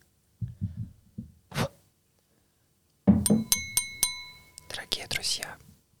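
A quick series of about five bright clinks of champagne glasses rings out, each leaving a short shimmering tone, after soft breathy whispering sounds at the start.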